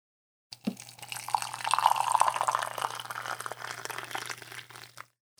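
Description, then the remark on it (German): Tea pours steadily into a cup for about four and a half seconds, a continuous splashing trickle that rises in pitch slightly as the cup fills, with no talking; a small drop splashes out onto the pourer's hand. “Also so ein kleiner Tropfen ist auf jeden Fall beim Eingießen rausgesprungen auf meine Hand gelandet”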